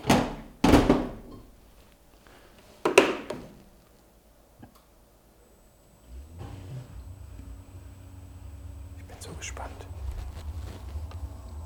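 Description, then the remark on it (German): A pair of sharp thunks as a modern dishwasher door is shut and latched, then a faint click, followed by a low, steady hum and gentle whooshing as the machine starts running quietly. “das Geräusch der angehenden Spülmaschine laufen lassen”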